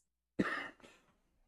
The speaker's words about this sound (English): the second time I've had to mute the cough.